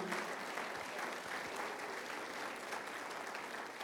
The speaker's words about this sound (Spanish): Si tú también ayudas a limpiar la casa, a lavar los trastes, aplaudámosle al Señor, sí.